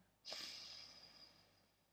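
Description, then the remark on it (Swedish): A single deep breath drawn in sharply through the nose during a guided breathing exercise, an airy, hissing rush that starts abruptly and slowly tapers off over about two seconds, otherwise quiet. “Ta ett djupt andetag, andas in.”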